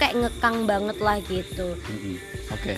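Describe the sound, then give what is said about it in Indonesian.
A steady, high-pitched trill of natural crickets at a cafe beside rice fields runs faintly underneath a person talking throughout. It stays continuous and unchanging while the voice carries on over it. “sebelumnya sorry kalau suaranya ada beberapa noise maklum ini lagi di cafe pinggir sawah jadi ada suara jangkrik yang alami ada suara musik dari kafenya jadi ya harap dimaklum”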